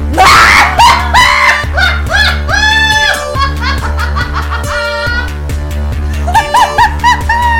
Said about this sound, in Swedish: It took ja. me off guard. Jag skrek.